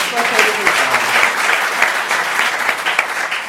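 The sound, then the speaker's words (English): A crowd applauds steadily for the Sunday school teachers, a dense wash of many hands clapping at an even, fairly loud level for the whole stretch, with faint voices mixed in near the start. “sithanda ukudlulisa ukubonga kwethu abosonto uh, Actually, let's just give them a round of applause”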